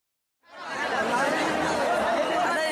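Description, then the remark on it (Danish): A dense crowd at the Gadimai festival, the world's largest mass slaughter of animals, where thousands of buffaloes, pigs, goats, chickens, pigeons and rats have their throats cut, murmurs and chatters all at once, many voices blending into a steady roar with occasional laughter, fading in after a brief silence and holding at a constant level. “Ja, for det vi hører her, det er lyden af verdens største masseslagtning af dyr.”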